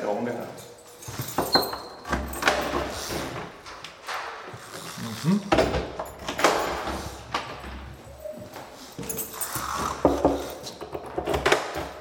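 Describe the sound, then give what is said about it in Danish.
Heavy metal cell doors in white concrete walls clank open one after another amid jangling keys and scattered footsteps, with voices murmuring, as inmates are woken at seven in the morning at Herstedvester Prison in Denmark. “En efter en bliver dørene i de hvide betonvægge åbnet.”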